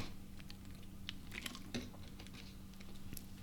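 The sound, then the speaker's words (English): Quiet sounds of a person drinking water: soft wet mouth clicks and a few swallows spread over a few seconds, with a low steady hum underneath and no talking. “I'm going to grab some water.”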